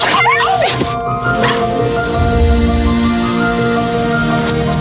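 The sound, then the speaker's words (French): A small dog yips and barks in quick, high-pitched bursts near the start, followed by a whimpering whine over a steady background hum. “Il a un nom, ce petit chien Oui, invité temporaire.”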